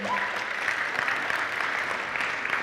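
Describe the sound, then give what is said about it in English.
A church audience claps steadily to mark the senior pastor's one-year anniversary, a dense, sustained wash of applause at moderate loudness with no one speaking over it. “I was not trying to get applause, um, mostly just saying the ship has not sunk.”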